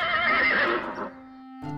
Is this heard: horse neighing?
yes